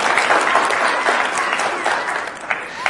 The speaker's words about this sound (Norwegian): Må dere klappe litt for dem. De har gjort en kjempeinnsats her i dag.